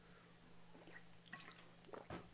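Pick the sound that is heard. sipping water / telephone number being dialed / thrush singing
sipping water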